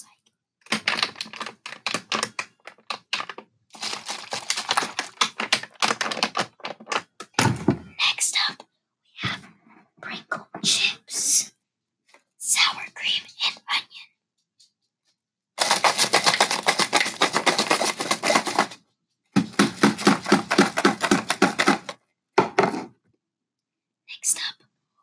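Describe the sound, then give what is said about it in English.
Rapid tapping on a water bottle for ASMR in dense bursts, with short pauses between flurries and quieter scattered taps, plus what sounds like soft whispering. “Let's see what a water bottle sounds.”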